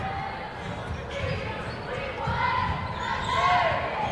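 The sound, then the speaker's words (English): Several basketballs bounce at an irregular pace as both teams warm up in an auxiliary gym, the echoing thuds overlapping, with indistinct voices and squeaks in the background. “As you can hear, the basketball is behind us. Both teams warming up behind us in the auxiliary gym.”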